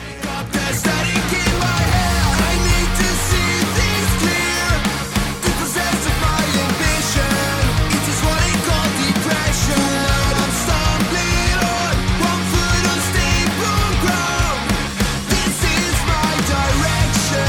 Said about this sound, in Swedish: Ett poppunkband, ett poppunkalbum som inspireras av flera stilar.